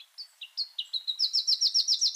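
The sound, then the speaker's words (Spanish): A black-crested warbler sings a fast series of high, thin notes, starting with a few spaced chirps and quickening into a steady, buzzy trill that grows louder toward the end. “El arañero cabecinegro que estamos oyendo se encuentra en Colombia, Ecuador, Perú y Venezuela, en los bordes del bosque de montaña o en zonas con abundantes arbustos, hasta los 2.000 metros sobre el nivel del mar.”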